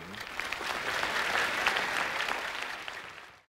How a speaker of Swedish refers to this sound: Det är väl värt en applåd.